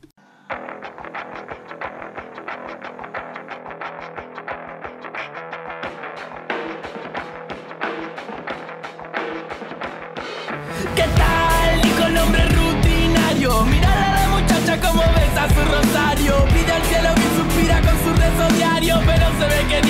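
A rock song opens with a thin, steady rhythmic riff, then about halfway through the full band crashes in, loud and dense with distorted guitars, heavy bass and drums. No voices are heard.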